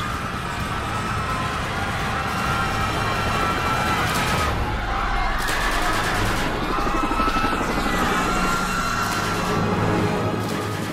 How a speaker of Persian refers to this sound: حدود پنج هزار نظامی به همراه دیویست تانک و کامیون محوطه میدون رو محاصره کرده بودند و دو سه هلیکوپتر در حال پرواز بود